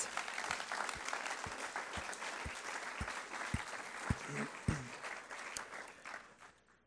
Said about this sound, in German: Geben wir Ihnen nochmal einen, einen Applaus, dass Sie das erzählt haben.